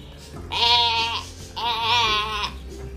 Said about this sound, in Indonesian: Itu suara kambingku, kita tangkap pencuri itu.